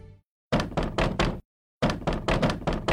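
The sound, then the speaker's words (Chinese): Loud, heavy knocking on a door in two quick bursts of about four blows each, separated by a short pause, in the horror audio novel Jue Ming Lao Shi Ren, as someone urges that the door be opened. The thuds are solid and insistent, with no voices. “小江，小江，快开门啊！”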